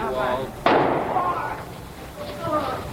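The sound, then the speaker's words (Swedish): A single sharp revolver shot, Jack Ruby shooting Lee Harvey Oswald in the basement of Dallas Police Headquarters, cracks out loudly amid a murmur of voices on a live broadcast. It rings off in a brief broad wash of noise on a thin, old recording. “He's been shot. Lee Oswald has been shot. There's the man with a gun.”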